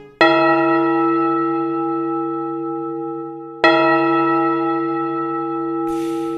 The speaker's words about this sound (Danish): Dette var blevet muligt efter grundloven 1849, hvor rides religionsfrihed betød, at den katolske menighed fik lov til at lade kirken ligne en kirke, og de måtte nu ringe med en klokke.